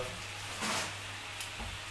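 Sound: mushrooms sizzling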